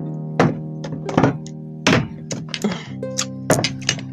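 Three glass bottles being set down on a table: a series of solid thunks with faint glassy clinks, irregularly spaced, over a steady low hum, with no talking.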